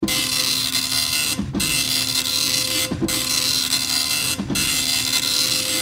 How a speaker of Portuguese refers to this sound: E aí ele imprime para ela ver eh, naquela impressora matricial que faz aquele barulho gostoso, assim, e imprime naquele papel picotado gigante.